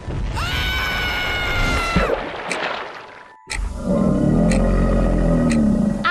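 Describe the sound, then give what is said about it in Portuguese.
A man lets out a loud, sustained scream, the screams of Captain Hook in a Peter Pan story, then it breaks off; after a brief silence, a dense, rumbling burst of noise fills the rest. “Depois disso, só escutamos os gritos do gancho.”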